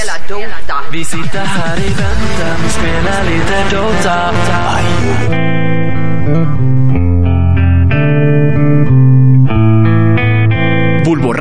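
An alternative rock song plays loudly throughout, busy and densely layered at first, then settling into sustained, ringing chords over a steady low bass.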